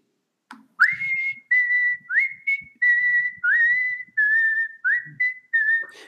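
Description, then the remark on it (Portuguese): A person whistles a bright, birdlike melody imitating a nightingale-style phone ringtone: about eight short swooping notes in a quick, steady rhythm, fairly loud, with no talking. “Eu quero assobiar como um rachinol.”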